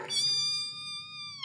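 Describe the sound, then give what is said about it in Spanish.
A voice mimics a wheezing chest with one sustained, high whistling whine lasting about a second and a half, fairly loud, with no talking. “No, ese es el pecho de uno cuando está dramático.”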